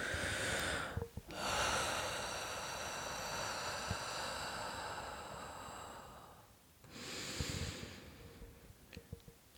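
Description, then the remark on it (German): A person takes slow, deep breaths in and out: a short breath, then one long drawn-out rush of air, a pause, and another heavy breath, with no talking. “Jedenfalls, wenn man in der Panik ist, was mir total hilft, ganz tief ein- und ausatmen. Also ich mal so richtig so.”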